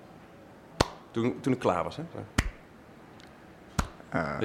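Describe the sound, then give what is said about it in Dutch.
Three slow, sharp hand claps spaced well apart, a sparse, halfhearted patter imitating the weak applause a full hall of about a hundred people gave after a performance that was not understood, fairly loud, with a person talking briefly between them. “Dus ik kreeg zo'n applaus.”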